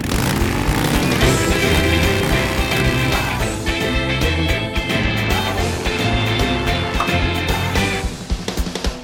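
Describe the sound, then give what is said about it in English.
A loud, dense roar of motorcycle engines as a motorcycle gang, the Rodents, led by Butchie, arrives at Big Mama's restaurant, revving and surging in uneven bursts, easing slightly near the end. “Here comes Butchie, the leader of the motorcycle gang, the rodents.”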